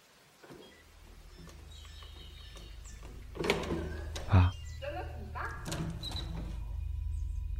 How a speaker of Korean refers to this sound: 동생은 문 앞으로 조금 빠르게 걸어가 번호키를 누르기 시작했다.